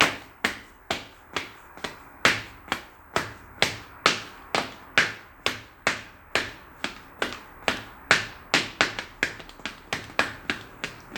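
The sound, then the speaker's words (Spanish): Flip-flop footsteps slap along at a quick, steady pace, coming from the dining room down a hallway toward a bedroom, each step a crisp, sharp smack, continuing evenly for several seconds with no voices. “luego se empieza a sentir pasos desde el comedor por ese pasillo que yo les eh, conté hace un rato, y como ruidos de chacletas.”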